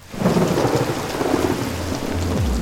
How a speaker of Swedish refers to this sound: Vi befinner oss utanför Berghain. vi sätter det så? Ja. Mm. Det regnar.